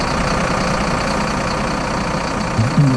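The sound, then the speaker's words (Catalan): A heavy snowplow engine starts and idles with a steady, low rumble that fills the whole clip, fairly loud, with a brief throaty surge near the end, as snow-clearing machines start their engines when the snow arrives. “Quan arriba la neu, estan preparats. Les màquines engeguen motors”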